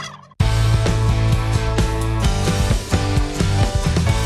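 A turkey gobbles loudly, a rapid, rattling warble that starts abruptly and carries on for several seconds with no voices, in a Romanian advert for Peneș turkey.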